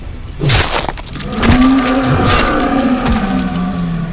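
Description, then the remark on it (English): A deep, bellowing monster howl rises after a sharp crash and holds for several seconds, loud, with crumbling, grinding debris beneath it; a blade slices deeply into the monster's chest and its howl shatters stone. “It sliced deeply into Batna's chest, coaxing a howl from the monster that shattered stone”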